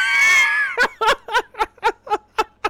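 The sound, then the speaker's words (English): A voice imitates the startled gasp of someone entering a bedroom with a sharp, high-pitched intake, then breaks into about eight quick, evenly spaced bursts of laughter, fairly loud. “I, we could have had the meme there if you were over a little bit, where she was like, "Oh."”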